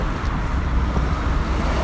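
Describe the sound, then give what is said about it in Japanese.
Steady, continuous road rumble with passing traffic noise and wind buffeting the microphone, loud throughout, recorded while riding a bicycle outdoors along a street. “ただでくれたんでそれで今取れる環境にあるんで自転車乗りながら撮ってます”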